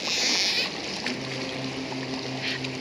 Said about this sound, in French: Il approche vite ce bateau. Ça doit pas être une petite barcasse, dis donc. Je dirais même que c'est du gros gros calibre. Peut-être bien un porte-avions même.